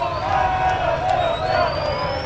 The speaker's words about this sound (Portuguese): Ele passa nesse momento pela rótula da Tiradentes com a Dom Pedro. São duas ruas que dão acesso ao Estádio do Santos pessoas gritam Pelé, Pelé, Pelé, abanam para o caminhão, que lentamente vai se mexendo e carregando o rei do futebol pelas ruas